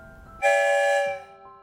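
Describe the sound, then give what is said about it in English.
A single loud, steady train whistle sounds for under a second, rich with bright harmonic tones, then cuts off, leaving a faint lingering hum. “One whistle means yes.”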